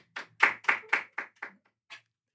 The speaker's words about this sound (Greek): Ένα χειροκρότημα το κοινό.